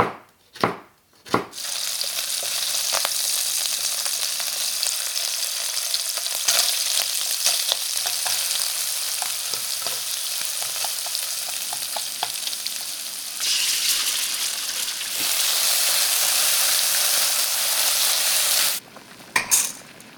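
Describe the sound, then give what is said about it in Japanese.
Napolitan spaghetti with fresh seasonal mushrooms frying in a hot pan, a steady loud sizzle with occasional clacks of a utensil stirring and tossing, without any talking, swelling briefly near the end. “今朝は旬の生マッシュルームを使ったナポリタンのいい音それではお聴きください。”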